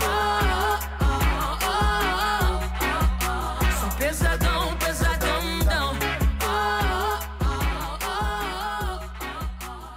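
A rap track plays loud and full, with a steady punchy beat, heavy booming bass and layered melodic lines running continuously throughout.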